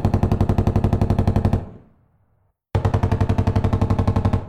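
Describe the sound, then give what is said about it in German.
Two loud bursts of rapid gunshots fired wildly inside a house, in a fast, even rattle, separated by a short echoing fade and a moment of silence before the second volley. “Da waren auf einmal Schüsse zu hören. Irgendjemand ballerte wie wild im Haus herum.”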